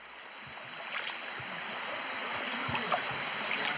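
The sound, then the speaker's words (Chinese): A forest stream at Fushan Botanical Garden, waded through in rain boots, flows with a steady, unbroken rush of water, bubbling and splashing softly throughout, while a thin, constant high-pitched whine hangs above it. No one speaks. “穿着雨靴，跋涉在树林间的溪流，耳边回荡着蛙声、鸟鸣，宛如置身在世外桃源。”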